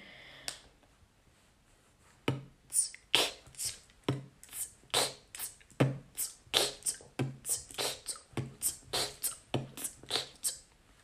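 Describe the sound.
A beatboxer performs a quick, steady pattern of inward k snares and crisp hi-hats, about twenty sharp, bright mouth clicks and hisses in even rhythm after a brief quiet start, with no talking.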